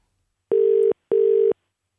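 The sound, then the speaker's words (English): Two steady electronic ringback tones, the fourth and fifth rings of an outgoing phone call, each lasting about four tenths of a second with a short gap between. Clear and fairly loud, no voices. “Four rings. It needs to be answered now. That's the fifth ring.”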